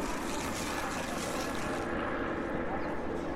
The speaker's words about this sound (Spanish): ¿Un eh, helicóptero? ¿Por qué pasan tantos helicópteros en Ciudad de México? Que hay gente rica que no le gusta el tráfico, el tránsito.